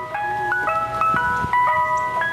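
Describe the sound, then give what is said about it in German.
A beer truck pulling up plays its signal jingle: a bright, electronic chiming melody of sustained notes, stepping up and down in a steady rhythm, fairly loud with no voices. “da höre ich unseren Bierwagen vorfahren.”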